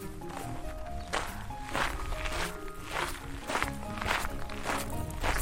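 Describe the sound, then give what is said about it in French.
Steady footsteps walk across a hard floor in the entrance hall of the château de Carrouge, about one step every half second, each with a slight ringing echo. No one speaks. “Alors là, on est dans, vraiment dans l'entrée. Euh, et donc ça résonne un peu, on l'entend.”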